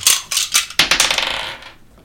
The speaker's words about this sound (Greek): Α ρίξω εγώ αυτή τη φορά ζάρι. Να ρίξω ένα.